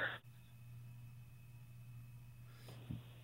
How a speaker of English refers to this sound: breaking up. You're breaking up.